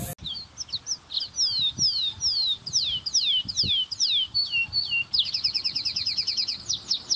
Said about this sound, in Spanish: El impulso de ir cada vez más lejos hacia lo desconocido no le permitió poner mucha atención a los detalles de las plantas, a la observación de pequeños animales, de pájaros exóticos